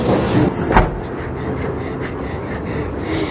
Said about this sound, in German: Mädchen fliehen durch den Zug in den nächsten Wagen und schlagen die Türe hinter sich zu.